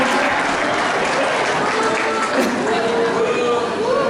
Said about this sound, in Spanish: Denle un aplauso al mundo.